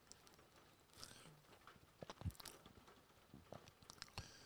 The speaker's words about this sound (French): je suis désolé pour le bruit, il pleut.